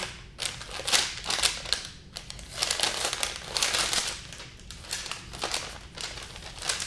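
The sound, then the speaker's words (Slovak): A paper sheet meant to be laid on a toilet is unfolded by its marked corners and stretched out, making a continuous series of bright, crisp crinkles and rustles in uneven bursts, moderately loud, with no one speaking. “Za tieto označené rohy, toto sú také rožky, to sa dá rozložiť, rozťahne.”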